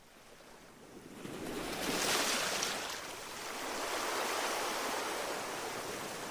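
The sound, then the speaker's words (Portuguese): Gentle sea waves wash onto a beach in a soft, continuous hiss, swelling twice as each small wave rolls in and recedes, with no voices present. “Vamos imaginar que estamos numa praia e que as pequenas ondas do mar chegam até ao nosso corpo, até aos nossos pés.”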